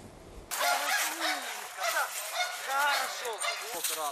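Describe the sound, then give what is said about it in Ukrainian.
Dogs bark and snarl aggressively during attack training, a loud, continuous flurry of overlapping barks that bursts in suddenly after a brief quiet moment and keeps going without pause. “Цих собак тренують кусати ціль таким чином, щоб нанести критичні поранення супротивнику, щоб опонент не зміг у відповідь вдарити собаку, пояснює кінолог.”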